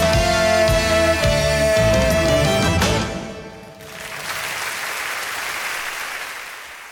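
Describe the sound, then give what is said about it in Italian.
A live song finishes on a sustained final chord, then an audience bursts into steady, full applause that fills the last few seconds without any talking. “Gli applausi tutti per”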